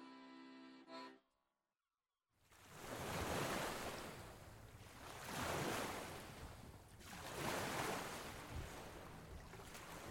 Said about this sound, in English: I'm in a small town in northeast Brazil called Lucena. I am looking out towards the ocean, its aquamarine waves extending far beyond the horizon.